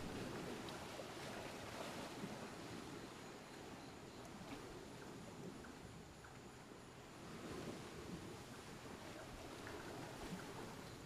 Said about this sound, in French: L'écume tiède se brise sur le sable chaud.